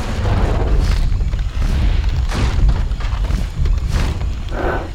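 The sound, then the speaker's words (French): Giant T-Rex stomping footsteps shake the ground and uproot trees: booms over a constant deep, ground-shaking rumble, with several heavy thuds arriving roughly every second, loud, with crackling debris-like bursts. “On peut imaginer en savoir davantage en 2035, pour la sortie du Jurassic Park 11, quand le T-Rex s'approchera à grands pas en faisant trembler la terre et en déracinant les arbres sur son passage.”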